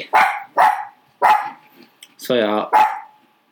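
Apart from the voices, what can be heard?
dog barking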